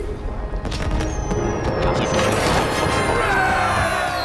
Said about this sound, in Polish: I dostajemy fajerwerki. Tak, wygraliśmy i klawisz Enter.